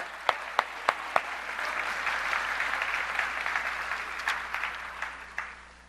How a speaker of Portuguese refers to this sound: Eu acho que eles merecem uma salva de palmas, né? Obrigado.